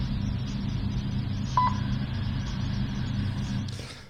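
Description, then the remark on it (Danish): A single short, clear beep of the Danish telephone speaking clock (Frøken Klokken), an automatic time signal sent every 10 seconds over the telephone network, sounds once midway, over a steady low hum and line noise, with no voices present. “Fryg, frygten Klokken var et øh, dansk automatisk tidssignal, der blev udsendt hver 10. sekund over telefonnettet, og man kunne ringe ind fra den 5.”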